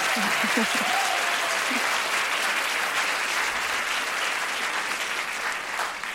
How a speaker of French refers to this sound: Merci deux personnes d'avoir applaudi, ça me. Ça me touche beaucoup. Merci.